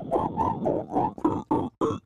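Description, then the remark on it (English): A voice imitates pig squeals, like the lyric-free squeal vocals of pigcore grindcore music, in a rapid run of about seven harsh, guttural bursts, loud, with short gaps between them and no other talking. “It's just pig squeals and no lyrics or I anything.”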